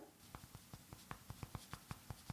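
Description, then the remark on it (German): Fingers tap steadily on a keyboard, a quick series of light, evenly spaced clicks that grow slightly louder toward the end, with no talking. “Ich weiß es Und auch so, ich, wenn ich jetzt auf die Tastatur tippe, man hört nichts. Und wenn du tippst, glaube, es ist die Beschaffenheit deiner Finger schon.”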